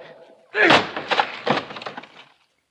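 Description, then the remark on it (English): A heavy thud as a door, locked with a key and bolted from the inside, is forced open by shoulder, bursting into a loud splintering crash followed by a couple of seconds of rattling, clattering debris. “Help me break down this door.”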